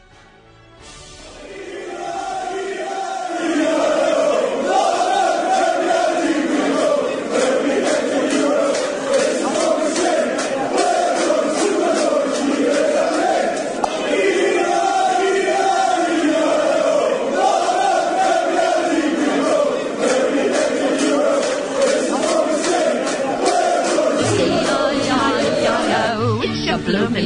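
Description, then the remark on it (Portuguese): A huge football crowd chants a melodic, repeating song in unison, 'Kevin Keegan is our king', swelling in over the first few seconds, then holding loud and steady throughout. “Então a gente vai ouvir que Kevin Keegan is our king.”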